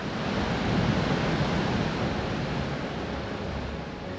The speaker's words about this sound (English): Before an hour, there were TV helicopters filming images of these massive waves just barreling towards the Japanese coast.